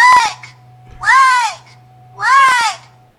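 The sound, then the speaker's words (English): Three loud, harsh quacks from a lone duck sitting still, each about half a second long and spaced roughly a second apart, with a faint low hum in the gaps and no talking. “it's just a lone duck just sitting there.”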